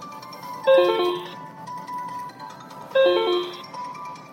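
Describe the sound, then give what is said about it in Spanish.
A mobile phone ringtone plays a short electronic melody twice, about two seconds apart, fairly loud over a low steady hum inside a car on the way to work. No one speaks. “Bueno, me vais a perdonar el corte, espero que esto siga grabando bien, pero como ya sabéis que grabo en el coche y que grabo camino al trabajo, es decir, ya estoy dentro de mi horario laboral, pues corremos el riesgo de que, de que me llamen.”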